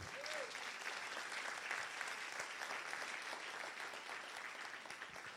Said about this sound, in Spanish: Den un aplauso fuerte a Jesucristo.